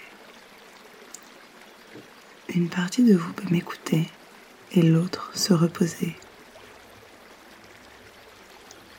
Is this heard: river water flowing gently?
yes